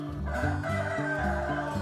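Chickens clucking in a steady, repeating rhythm of short calls, fairly loud, with no talking over them.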